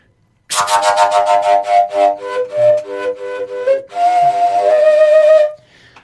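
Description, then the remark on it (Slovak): A shepherd's flute played overblown with all finger holes covered: a run of short, high, breathy tones in quick succession, then one longer sustained high note, loud and alone with no talking. “To bol rozfúk, že zakriežaš fúkaš iba také, také vysoké, krátke tóny.”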